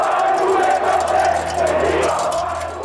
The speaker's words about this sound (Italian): La gente grida Bettino, vuoi pure questi soldi? mentre bombarda la sua auto di monete. È un rito di passaggio italiano destinato ai politici corrotti. Un estremo saluto riservato ai peggiori truffatori.